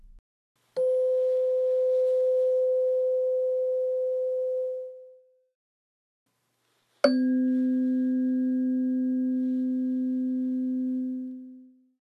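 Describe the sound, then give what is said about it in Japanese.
Two tuning forks are struck one after the other to measure their frequencies from the waveform, each giving a sharp tap and then a pure, steady ringing tone lasting several seconds; the second is lower in pitch. No voices are heard. “2種類の音差を叩き、波形を使って周波数を調べます。”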